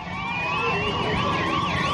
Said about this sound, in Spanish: No, le estaba contando que hay sirenas de la policía.